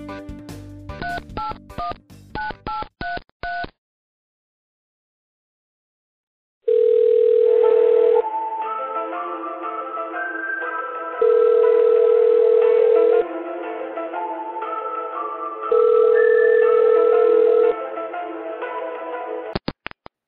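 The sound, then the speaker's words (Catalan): A quick series of telephone keypad tones is dialed for a phone call placed from a hidden number, followed after a short pause by a repeating ringback tone, steady buzzing pulses with gaps, heard clearly over faint music-like background, no talking. “I aquí teniu la trucada que va fer Moi”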